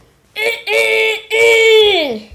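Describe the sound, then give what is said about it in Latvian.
A man who keeps hens and roosters at home mimics a rooster's crow, a loud, sung call in three bursts that ends on a long note sliding downward, with no other sounds around it. “Un tāpēc, lai viņš atbild, pasaka nodziedot. Pareizā atbilde ir gailis.”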